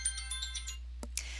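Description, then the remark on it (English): A phone alarm ringtone chirps in a quick run of repeating electronic tones, then cuts off, followed by a sharp click and a brief rustling burst. No one speaks. “Oops, that's my alarm going off.”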